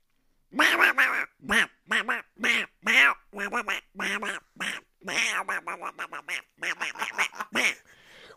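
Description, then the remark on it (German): A person imitates a duck with a long run of loud, nasal quacks in quick bursts, some clustered and some spaced, with no other talking. “ich bin ein wunderbarer ja. Ente-Emulator.”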